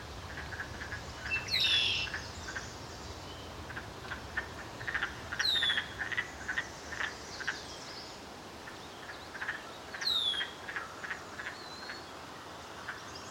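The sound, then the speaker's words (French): A chorus of wood frogs croaks steadily in short, clucking bursts by a bare patch of ground strewn with large pieces of wood and branches along a trail loop, with a few bright descending bird calls cutting in now and then over a quiet outdoor background. “Ça, c'est l'endroit parfait pour les grenouilles des bois.”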